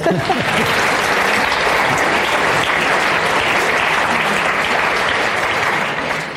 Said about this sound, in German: Gebt ihnen doch einen Applaus.